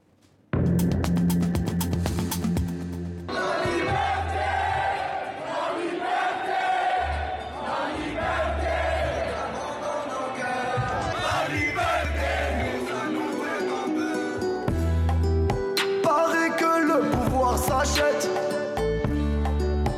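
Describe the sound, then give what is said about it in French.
A large outdoor crowd of protesters at demonstrations in Algeria sings a song together, loud and continuous, many voices blending with shouts and chants rising over a dense, echoing roar. “on écoute même la foule qui chante cette chanson.”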